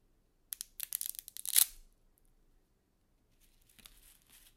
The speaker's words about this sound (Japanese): パスタも半分に折ってこのステンレスジャーに入れるということなのでいきます